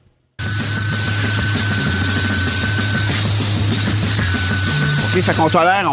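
Harsh noise music blasts in after a brief silence: dense, distorted wall of sound with a droning low hum, a steady high whine, and warbling glitchy sweeps near the end, loud throughout.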